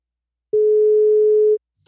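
A telephone ringback tone sounds once as a call is placed: a steady, mid-low pitched hum lasting about a second, clear and alone, with silence before and after.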